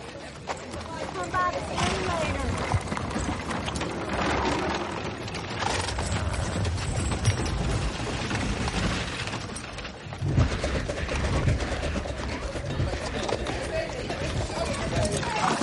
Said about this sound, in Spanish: Jim Stacy camina a caballo por una calle del oeste en los estudios.